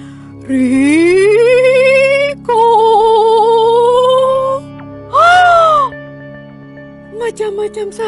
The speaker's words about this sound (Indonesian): Masa sekarang suara angin itu seperti memanggil namanya? Seperti seperti suara rekaman yang memanggil uh, Dito dan Satria.